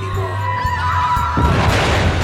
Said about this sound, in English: Suddenly the room rocked. The sound was unmistakable. Within a few city blocks, massive explosion had occurred.